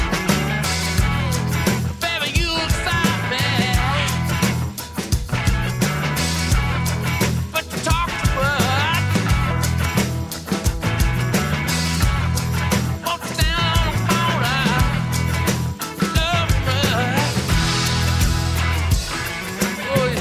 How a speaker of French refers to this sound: une version remasterisée de leur album … avec des nouveaux arrangements comme pour le titre que nous écoutons actuellement